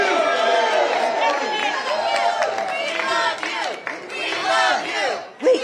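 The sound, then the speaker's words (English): A large crowd cheers and shouts loudly in thanks in a sustained roar, many voices overlapping with whoops and yells for several seconds, ending with one louder shout. “Can we say thank you? Let's hear it.”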